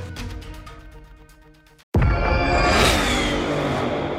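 A powerful car engine of an estimated 500 horsepower hums with a steady tone, cuts out for a split second, then erupts into a loud, roaring rev that surges and holds.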